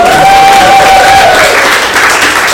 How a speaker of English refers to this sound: and let's give him a massive round of applause